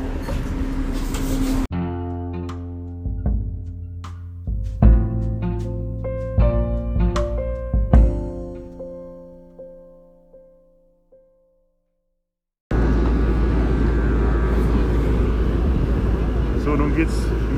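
A harbor ferry on line 64 between Finkenwerder and Teufelsbrücke in Hamburg rumbles with its outboard motors running in a loud, steady drone on a sunny summer evening, briefly at the start and again after a pause. Between them, a run of ringing musical notes slowly fades to silence.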